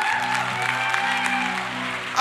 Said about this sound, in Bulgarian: Аз проповядвам по-добре, отколкото вие ръкопляскате хора.